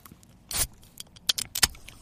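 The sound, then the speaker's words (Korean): A beer can cracks open with a brief, bright fizzing hiss, followed by a handful of sharp metallic clicks and clinks over a quiet background, with no talking. “맥주 캔다는 소리입니다.”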